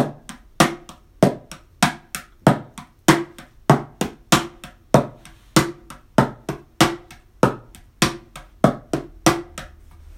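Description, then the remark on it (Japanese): A mini cajon, standing in for a drum set, plays a steady eight-beat groove: light hi-hat taps struck softly on the side, sharper snare slaps struck harder on the side, and deep bass-drum thumps struck near the middle, in an even, continuous rhythm with no talking. “まあ、側面を弱く叩くハイハット側面をちょっと強めに叩くスネアそして真ん中あたりを叩くバスドラムこの3つの、えー、音色を組み合わせて、えー、ドラムセットの代用みたいな感じで、えー、ビートを作ります。”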